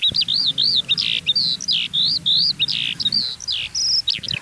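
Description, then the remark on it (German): A Eurasian skylark in heathland sings a rapid, unbroken stream of high warbling and trilling notes, clear, over a low rumble of wind or background noise. “Wenn man genau hinhört, hört man hier die Feldlerche.”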